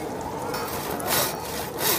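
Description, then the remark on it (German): A hand saw rasps steadily through pack ice, worked by hand, its strokes swelling in bright, gritty bursts about every second, fairly loud with no voices. “Wenn Sommers und von Mierlo Pause haben, überlegen sie sich ständig neue Methoden, das Eis zu zersägen.”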